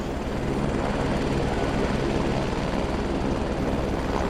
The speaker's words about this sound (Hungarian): Valahonnan ide hallatszott a helikopter dübörgése.